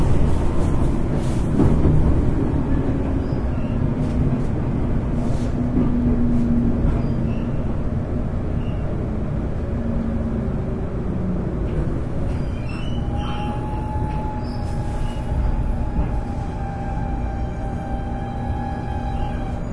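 Steady low rumble of a JR 811 series electric train on a rapid service between Orio and Kashii, heard from inside a car, with continuous rolling noise, faint rattles and a thin whining tone that rises partway through as it runs along.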